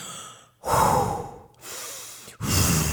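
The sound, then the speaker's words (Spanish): A voice imitates a tortoise that can no longer hold its breath, gasping for air: a few loud, heaving breaths drawn in and pushed out, separated by brief pauses, with no words spoken. “Pero de tanta admiración, el morrocoy no pudo aguantar más la respiración y empezó a respirar normalmente.”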